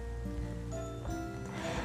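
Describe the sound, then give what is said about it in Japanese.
A low, continuous rumble of heavy thunder rolls steadily through the whole stretch while no rain is falling. A soft rain-like hiss sits over it, and no one is talking. “なんかね今めちゃめちゃ雨降ってはないか雨は降っってないんだけど雷がやばいのでちょっとゴロゴロ音が聞こえてるかもしれないんだけど続けます”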